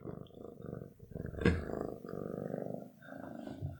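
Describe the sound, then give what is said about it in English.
A male cat purrs steadily, a low rumbling buzz with a faint pulsing rhythm that swells briefly midway and continues softly to the end. “you can actually faintly see his purrs on the yeah.”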